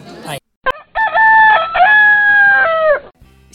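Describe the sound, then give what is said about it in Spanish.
A rooster crows loudly, one long, drawn-out cock-a-doodle-doo lasting about two seconds with a strained, wavering pitch, preceded by a brief snippet of voice. “Siempre oportuno, nuestro gallo Neymar nos avisa que llega uno de los momentos estelares del programa”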